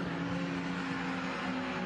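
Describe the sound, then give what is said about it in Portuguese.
A Gol race car's engine drones steadily at low revs, a continuous mid-level hum with no sharp acceleration, as the car goes slowly along the track, abandoning the race and being taken off the track. “Lento na pista o gol de Leovaldo Petri.”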